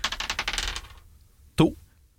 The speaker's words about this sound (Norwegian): Da skal vi kaste en terning her, så har jeg ei liste over kategorier.